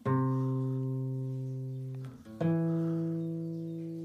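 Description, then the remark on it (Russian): A C major chord strummed twice on guitar, each strum ringing out with a bright, full tone and slowly fading, with a brief gap between them and no voices. “Сейчас я даже гитару возьму. Ну типа у тебя есть нота до, она такая...”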